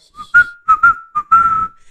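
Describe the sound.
A human whistle carries a short tune, a run of bright, clear notes around one pitch with brief gaps between them, ending on a longer held note, fairly loud; it is the whistle of the character Omar as he walks the street.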